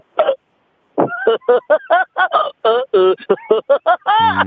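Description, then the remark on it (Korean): A voice imitates a drunk woodpecker's pecking with a fast, uneven string of about a dozen short, honking vocal bursts that stagger and wobble, loud. “그다음에 그, 어떤 예, 딱, 어떤 딱따구리? 술 취한 딱따구리.”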